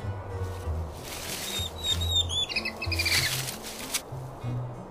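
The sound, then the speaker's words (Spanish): Crunchy dry autumn leaves crunch and rustle in a steady, crackly stream, with a few high squeaky chirps in the middle and a soft low tone humming underneath. “En otoño cubrieron sus púas con crujientes hojas secas.”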